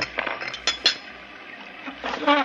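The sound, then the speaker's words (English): A few light clinks of cups, then tea poured into a cup with a pitch that rises as it fills. The sounds are soft and there is no talking. “I'll make us some tea.”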